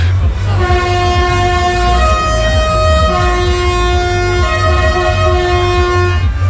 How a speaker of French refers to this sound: manifestation contre la réforme des retraites.